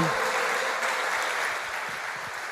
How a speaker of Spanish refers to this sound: ¿Cuántos le dan un aplauso a nuestro Señor por eso?